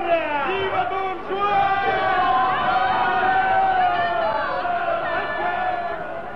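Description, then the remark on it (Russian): A crowd cheers loudly as it carries Don Juan out on its arms, many voices shouting and whooping together in a continuous, excited roar of rising and falling pitches that lasts the whole time without letting up. “Толпа вынесла Дон Жуана на руках.”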